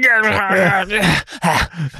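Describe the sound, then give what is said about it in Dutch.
A voice imitates a Liverpool football player growling and panting as he charges across the field, drawing out a low, strained groan before breaking into a few short, breathy panting bursts, fairly loud. “Terwijl hij, dat hij grommend en hijgend over dat veld heen gaat.”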